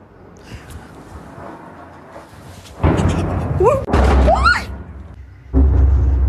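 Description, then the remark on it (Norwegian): Heavy, close explosions from bombing in Ukraine boom in several loud bursts, each sudden blast followed by roaring rumble and whistling, rising tones, with low, muffled background noise before the first impact. “Og her hører du en kvinne som Gina har intervjuet, en kvinne som opplevde bombing så nært som dette.”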